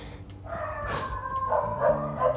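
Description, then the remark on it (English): Stray dogs barking outside, a string of repeated barks and yips, with no one talking over them. “Oh, this is getting really deep, and there's dogs barking outside.”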